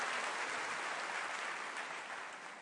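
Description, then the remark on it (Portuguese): A church audience applauds Jesus in a steady, dense wash of clapping that holds fairly even throughout, then eases slightly toward the end. No voices are heard over it. “Você pode aplaudi-lo?”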